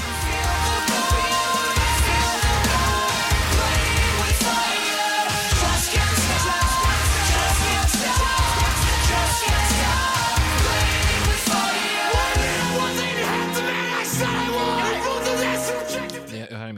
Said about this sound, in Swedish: En helt vanlig metalcore-låt, man blir inte besviken, man blir tyvärr inte heller speciellt imponerad.